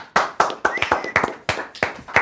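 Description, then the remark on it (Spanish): Applause from a small number of hands: about nine sharp, evenly spaced claps in a brisk steady rhythm, moderately loud, with a faint high tone briefly sounding beneath them and no talking. “Un fuerte aplauso, por favor, venga.”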